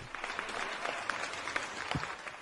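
Steady applause from a group of people, a dense patter of many overlapping claps at a fairly even level for the whole stretch, with no voices over it.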